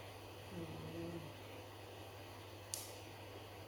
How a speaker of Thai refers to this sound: ตอนนี้เสียงแอร์ดังมาก